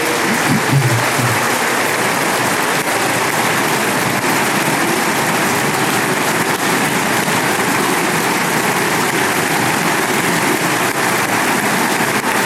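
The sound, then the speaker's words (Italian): Sustained standing ovation in the Italian Assembly: all members rise to their feet after President Mattarella refers to the commitment of the police forces. Dense, continuous applause from a large crowd, loud and steady throughout with no pauses, and no one speaking over it. “Anche in questo momento, dopo che ha pronunciato, ha fatto riferimento all'impegno delle forze dell'ordine, tutti i membri dell'Assemblea si sono alzati in piedi per l'applauso che state sentendo, eh, un applauso ovviamente sacrosanto.”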